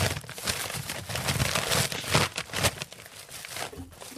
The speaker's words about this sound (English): I'm opening both. I'm opening the the blue package, but also this.